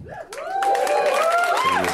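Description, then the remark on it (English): An audience at a comedy show bursts into applause after the comedian says he is turning 37, dense steady clapping that swells quickly and holds, mixed with a few rising cheers and whoops over the top. “So yeah, if I uh, die before then, uh, take back that applause.”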